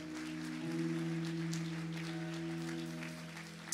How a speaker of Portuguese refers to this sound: Nessa noite eu estou aqui com um amigo de muito tempo, que é muito querido por essa igreja. Eu queria que você recebesse com um forte aplauso ao nome de Jesus